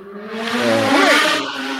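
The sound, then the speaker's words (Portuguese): A motorcycle engine revs loudly, its droning pitch climbing in a quick surge near the middle before settling back, with no talking over it. “Moto.”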